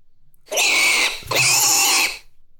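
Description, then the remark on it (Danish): A small pig lets out two loud, shrill squeals back to back, each lasting under a second, with a rough grunting edge. There is no talking. “Den lille gris.”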